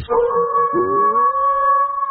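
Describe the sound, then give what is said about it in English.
Wolves howl together in long, sustained, overlapping tones, one voice sliding upward while others hold steady pitches, loud and continuous with no talking. “But this family was surrounded by wolves”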